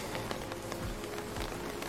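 Steady rain patters on an umbrella overhead as someone walks in the rain, a dense, even spray of small drops with a few heavier taps, continuing without a break and with no voices.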